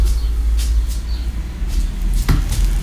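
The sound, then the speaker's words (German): A steady low rumble of passing cars fills the background outdoors, with a few faint high bird chirps and a brief sharp thump near the end. “Ja, ihr hört auch schon die Vögel und Autos.”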